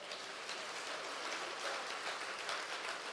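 A crowd claps steadily for a couple, a dense, continuous crackle of many hands that stays at an even, fairly loud level throughout, with no voices.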